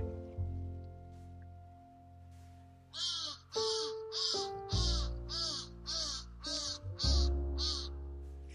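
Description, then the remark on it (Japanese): A crow in a nearby tree caws loudly and repeatedly, a rapid series of about nine harsh calls in quick succession, with a low steady hum in the background. “なんか今日はカラスと対話してる感じになってきたなねえあそれをなんかより伝えていくようになるんだなって話をしたら今すぐそばの木にカラスが来て”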